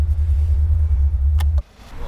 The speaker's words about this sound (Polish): Tak, e, nasze Maserati e, ma prawie 5-litrowy silnik, który potrzebuje naprawdę dużo paliwa.